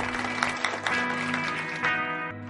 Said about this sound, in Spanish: Dar un aplauso fuerte.